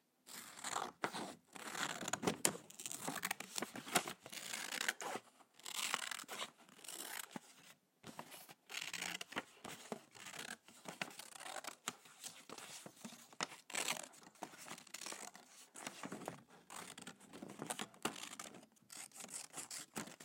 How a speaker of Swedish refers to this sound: Jag ska klippa i papper lite nu tänker jag. Och det brukar ju låta satisfying väl, eller brukar ju låta nice.